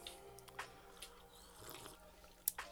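A few soft, wet sipping sounds from someone drinking Hpnotiq liqueur, brief slurps spaced irregularly over a quiet background, with a slightly sharper sip near the end. No one speaks.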